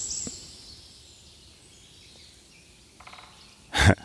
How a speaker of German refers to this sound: Oh, ein Specht, habt ihr den gerade gehört? Müsst ihr nochmal zurückspulen. Da! Jetzt mache ich mal nichts. Kloppt er nochmal?